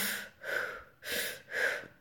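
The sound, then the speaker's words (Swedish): Someone demonstrates breathwork circular breathing, breathing rapidly and deeply in a continuous cycle: about four loud, airy inhales and exhales with no pauses between them. “Och sen eh, andas man på mm. ett väldigt speciellt sätt. Typ så.”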